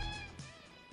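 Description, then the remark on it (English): A window latch being unlocked on a crank-out window: a few short clicks and a scrape, fairly quiet, with a faint steady hum in the background. “unlocking the lock on a crank out windows”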